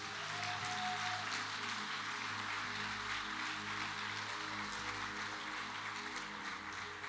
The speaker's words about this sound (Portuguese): Aplauda esse Deus.